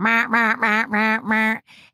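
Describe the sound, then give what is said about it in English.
A voice imitates a duck, giving five loud, nasal quacks in quick, even succession, then a fainter, breathy sixth quack trailing off. “Well, the first thing that it did, there's always like a, an initial messaging and then I can go deeper, but it came in and, and was quacking quite a lot.”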